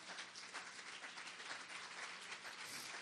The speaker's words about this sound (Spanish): ¿Por qué no le damos una ofrenda de palmas al Señor?